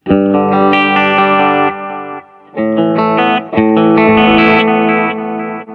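Ambient guitar-like tones through a bucket-brigade delay, an analog-style delay, with reverb on, drenched in warm echo, notes smearing into long echoing trails. Two loud, sustained swells are separated by a brief dip, with no voices.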